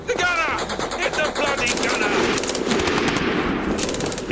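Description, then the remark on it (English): Rapid, continuous bursts of Sten submachine gun fire crackle loudly throughout as Howard's men fire and throw grenades while charging towards the bridge over the Caen Canal, the rattling shots layered over a dense battle din, with shouting voices mixed in near the start. “They were followed by Howard's men firing their Sten guns and throwing grenades as they charged towards the bridge.”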